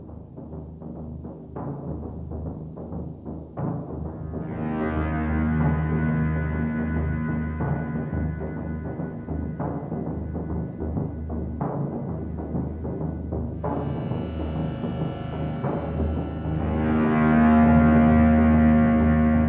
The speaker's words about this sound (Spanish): Es una pieza hecha totalmente con sintetizador y curiosamente en el mismo contexto de lo tecnológico, ¿no?